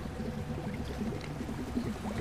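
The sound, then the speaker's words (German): Water begins to flow in a window, with a continuous low rushing, burbling sound that stays at an even, moderate level throughout, with no voices. “Vor mir im Fenster beginnt das Wasser zu fließen.”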